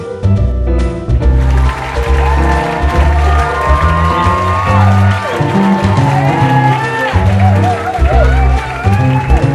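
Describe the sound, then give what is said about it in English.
A loud, dense crowd cheers continuously, with rising and falling whoops and shouts cutting through the roar for the whole stretch. “Let's stop all that cheering and get down to some serious business.”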